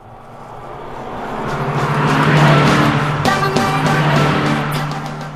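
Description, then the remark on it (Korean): Heard from inside a car on a drive, another car whooshes past alongside, its roar swelling to a peak midway and then fading slightly, with steady road and engine noise throughout and no one speaking. “음악 소리가 좀 들릴만 하니까 다른 차가 옆에 또 슝 지나가서 음악 소리가 좀 묻혔죠.”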